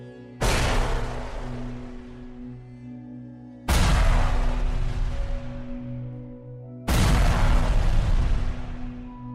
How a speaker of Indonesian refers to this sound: sesekali Tino dengar ada suara ledakan dari dalam hutan